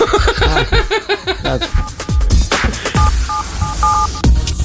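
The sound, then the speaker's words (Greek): A rapid series of short, evenly spaced touch-tone beeps as a phone number is dialed, heard over a busy background of laughter and chatter. “Ε, ναι, πάρε τηλέφωνο.”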